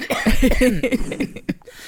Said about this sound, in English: Sorry about keeping coughing down. I've got, something, I've got a frog in my throat or something.